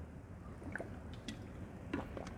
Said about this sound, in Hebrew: אני רוצה לספר לכם, בזמן שאני שותה מים, פושרים דווקא היום.